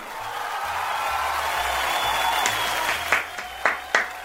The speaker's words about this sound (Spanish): Le recibimos aquí como todos los lunes a esta hora con aplausos al señor Luna.